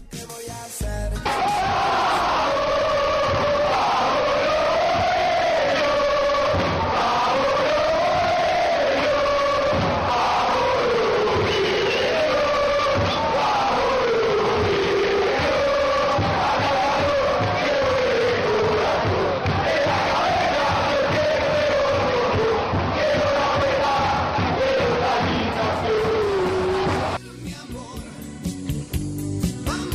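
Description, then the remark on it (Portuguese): A large crowd of football supporters of the team called Los Boêmios sings a chant together in a loud, steady mass of voices, the melody rising and falling in repeated phrases for nearly half a minute before breaking off. “Então vamos ouvir aí, é, vamos, vamos, Los Boêmios.”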